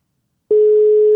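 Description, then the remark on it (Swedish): After a brief silence, a steady mid-pitched phone ringing tone starts and holds on, a single unbroken beep on an outgoing call, clear and fairly loud with nothing else around it. “Det ringer i alla fall.”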